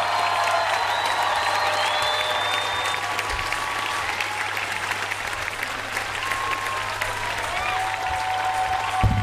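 A festival crowd applauds the speaker, the musicians and a singer steadily and loudly throughout, a dense wash of clapping with scattered whistles and cheers rising above it, sustained without a break.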